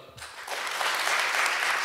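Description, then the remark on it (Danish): An audience claps to vote for the little sister, breaking into clapping after a brief quiet start, building quickly into a steady, dense wash of many hands that holds fairly loud to the end. “Okay, klap, hvis I synes, det er lille søsteren.”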